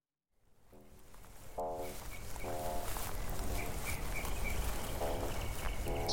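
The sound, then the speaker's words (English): Birds chirping outdoors on a sunny day with big white clouds, over steady breezy ambience, with a few short, fairly distinct calls repeating every second or so and fainter high chirps scattered in the background. “Sunshine tumbling out behind big, puffy white cloud banks, birds chirping, a breeze tinged with the scent of lilacs.”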